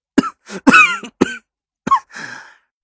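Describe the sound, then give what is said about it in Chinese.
A man coughs angrily several times in quick, harsh bursts, the last one trailing into a raspy, breathy rasp. No one speaks. “气得咳嗽了几声”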